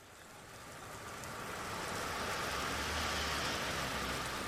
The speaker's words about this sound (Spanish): Típico, lloviendo en Londres. En, en Londres llueve mucho y nos tocó lluvia también el día de hoy.